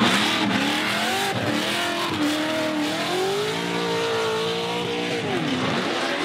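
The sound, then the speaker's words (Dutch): A car drifts, its engine revving hard and wavering in pitch while tires squeal continuously, loud and sustained for several seconds with no talking. “kun jij je eigen drift herkennen als je het zou horen?”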